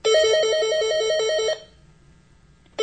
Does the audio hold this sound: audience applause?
no